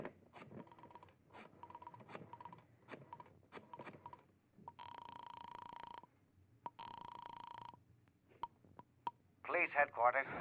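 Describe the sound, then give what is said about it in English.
A telephone being dialed: a run of sharp clicks and brief tones, then two steady, buzzing phone tones of about a second each, ending in a louder rustling burst. “You remove your gloves, survey the room quickly, and then you go to the phone.”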